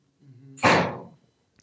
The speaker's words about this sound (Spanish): ¿Se escuchó mucho ese portazo? Después del ah, portazo mm, No creo.